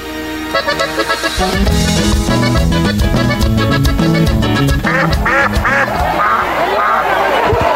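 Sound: duck quacking sound effect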